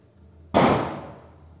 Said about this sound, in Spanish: Sí, se escuchan esos que acá mis vecinos ya empiezan con la pirotecnia, ya van a empezar con su, su show.